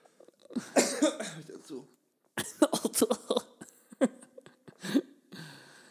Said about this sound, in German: Huste dich aus, ….